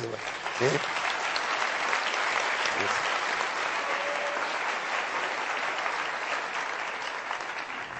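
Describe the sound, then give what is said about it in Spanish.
Sustained audience applause, a dense, steady wash of clapping that holds at an even loudness for the full eight seconds, with a faint voice or two briefly audible early on. “Aplaudan eso, por favor.”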